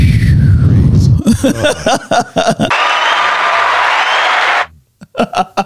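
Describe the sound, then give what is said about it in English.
A crowd breaks into sustained applause and cheering on the Stone Builders Hour, a dense steady wash of clapping lasting about two seconds, with people talking just before and after it, after the hosts mention 50 years of marriage. “yeah, you got applause because yep.”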